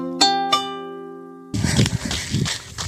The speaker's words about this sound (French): Bon, je suis en train de courir, comme vous pouvez l'entendre.